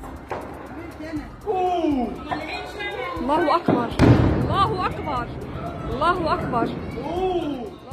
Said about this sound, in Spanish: Así se escuchan los primeros momentos tras la explosión en videos difundidos a través de las redes sociales.